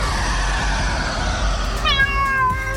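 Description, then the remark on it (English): A cat meows loudly and drawn-out, its wavering cry rising near the end, over a low, steady rumbling background with no one speaking. “Have you lost your cat? Uh oh, steady kitty.”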